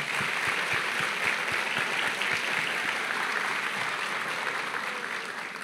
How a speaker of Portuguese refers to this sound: Então você chegou até o fim de mais um ano. Dê uma salva de palmas para a pessoa que está do seu lado.